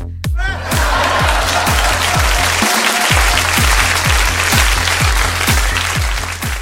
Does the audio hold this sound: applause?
yes